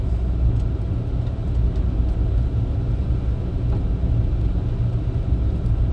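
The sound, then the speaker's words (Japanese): Steady, continuous low rumble of a car driving slowly at 30 km/h on a snowy road with no ruts ahead, only tracks from oncoming cars, engine and road noise heard from inside the vehicle for the whole stretch, with no one speaking. “なんか対向車の走った後はあるんですけど僕の前に道がないみたいな僕の前にわだちがないっていう状態ですあもう僕の一歩が初の足跡みたいな感じで車を運転しています30キロでね”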